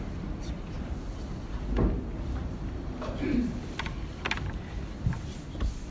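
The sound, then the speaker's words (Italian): A chair is shifted across a floor in a few short, scattered bumps and scrapes spread over several seconds, with faint murmuring voices in the room. “Lo prendi la sedia.”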